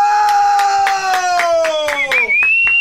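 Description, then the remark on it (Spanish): Audience applause in steady, rhythmic claps about four or five per second, heard under a loud sustained tone whose pitch slowly slides downward before jumping up high near the end. “Denle un aplauso a este buen hombre.”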